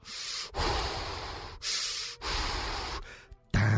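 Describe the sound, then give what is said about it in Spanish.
Mechanical respirator breathing of a Star Wars film villain: slow, loud, hissing inhales and exhales alternating in a steady rhythm, about four breaths with no talking, ending abruptly as a different sound cuts in. “era el referente directo al malo de la película y no precisamente a los otros que eran que eran pues seres humanos, que eran gente pues de bien, que no tenían tal vez mucho impacto como sí podía tener este personaje que además respiraba de una manera”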